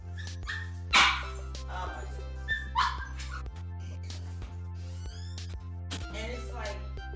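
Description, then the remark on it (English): A dog barks in a few sharp bursts, with softer whimpers and yips between them, over a steady low hum. “And please forgive me, I had to let my dog out.”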